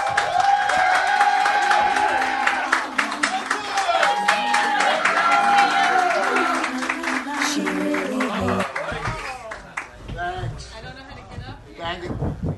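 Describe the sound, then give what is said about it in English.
A crowd gives a big hand for Todd Glass, breaking into loud, dense applause with whoops and cheers rising over the clapping, sustained for several seconds before it thins out and voices emerge as it fades. “A big hand for Todd Glass, folks.”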